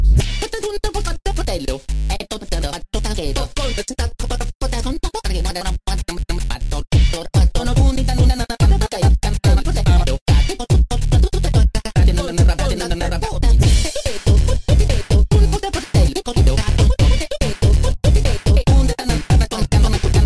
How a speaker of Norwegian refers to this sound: Jeg bare sukker oppgitt og setter på en uh, ny låt.